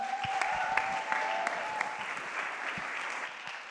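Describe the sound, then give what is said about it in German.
Steady audience applause at a church as a speaker named Leon is announced, a dense crackle of many hands clapping at even loudness throughout, with a faint thin tone lingering early on and no one speaking. “Lasst uns Leon einen großen Applaus geben.”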